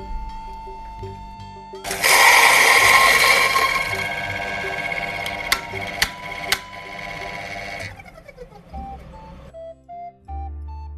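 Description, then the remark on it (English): A coffee grinder runs loudly for about six seconds, grinding coffee for pour-over coffee, a harsh, gritty whir with a few sharp clicks near the end, before cutting off. Faint tones sound before and after. “We need a brewer set, a kettle, a scale, and now I'm gonna get some ground coffee.”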